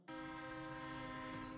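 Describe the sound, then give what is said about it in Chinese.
A train horn sounds one long, steady blast, a loud sustained chord of stacked tones that starts abruptly and holds without a break, with no voices. “传来火车鸣笛声，古洛夫倾听，蹙眉。”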